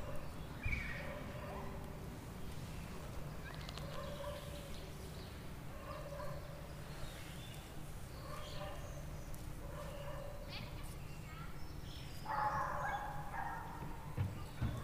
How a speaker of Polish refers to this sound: I to jest właśnie wiosna nagrana w moim ogrodzie.